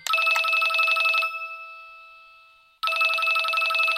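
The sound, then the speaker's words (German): A telephone bell rings in two loud, rapid bursts separated by a pause of about a second and a half, a metallic trill with no voices. “Das kann einfach mal ein Telefon sein, das klingelt immer mal.”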